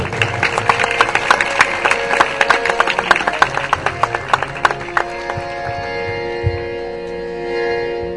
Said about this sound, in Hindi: दो तालियां खुदा के जलाल के लिए हम बजाएंगे